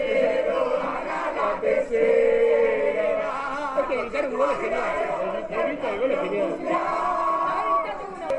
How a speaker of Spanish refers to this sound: Así millones de argentinos salieron a las calles a festejar el tercer campeonato del mundo de fútbol que esperaban desde hacía 36 años.